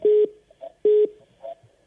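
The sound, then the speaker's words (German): A phone emits two loud electronic call-waiting beeps about a second apart, each a short steady tone, with faint softer blips between them; nobody speaks. “So, jetzt klingelt's, äh, jetzt piept's.”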